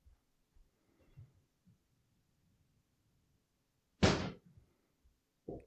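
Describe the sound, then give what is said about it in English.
A cupboard door slams shut with one sharp, loud bang as it swings closed without being caught, followed by a brief rattle. Soft thuds come before it, and a smaller knock follows near the end. No one speaks. “all, that happened was my cupboard door. I just like didn't catch it as it closed”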